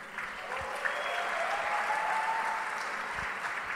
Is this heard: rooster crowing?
no